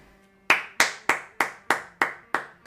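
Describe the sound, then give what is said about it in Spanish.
Seven crisp hand claps applauding a film as its credits roll, in a steady, fairly quick rhythm, clear with no talking, each clap sharp and separate after a brief quiet start. “Que bajen los créditos. No, vos, así, así, porque no, se puede aplaudir.”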